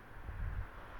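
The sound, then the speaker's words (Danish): A low, steady rumble of traffic, cars passing in the background in Rigskov north of Aarhus, in front of a large white house on Grenovej, swelling slightly midway through the brief stretch before easing off again. “Det, du kan høre i baggrunden, det er lyden af biler.”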